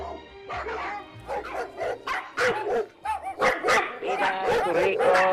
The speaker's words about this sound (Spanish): Por ejemplo, cuando nuestro perrito se pone a ladrarle a cada persona que pasa.